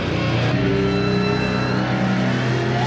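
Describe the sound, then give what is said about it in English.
The engine of the Miller Genuine Draft Rusty Wallace NASCAR stock car roars loudly and steadily for about three seconds in a NASCAR commercial. Its growling pitch holds and shifts slightly as it revs, with no voices present. “The Miller Genuine Draft Rusty Wallace stock car.”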